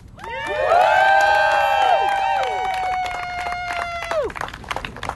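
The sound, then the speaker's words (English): A crowd at a pro-Palestine rally erupts in loud cheering after a speech, many overlapping voices whooping and shouting in sustained high tones, with scattered clapping crackling beneath as the cheers gradually fade. “Again, round of applause, please.”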